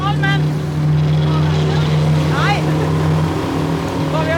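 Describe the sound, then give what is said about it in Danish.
A motorboat engine, heading back to harbour, drones steadily and loudly throughout, a constant low hum with rising, whistling tones briefly cutting through at a couple of moments. “Endelig mod havn, og så skal båden måske nok lige en tur rundt om en mekaniker.”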